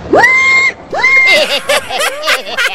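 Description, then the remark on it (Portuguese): A man's voice imitates a pig, with two loud, rising squeals followed by a run of choppy, grunting snorts, alone. “Eu sei imitar um porco.”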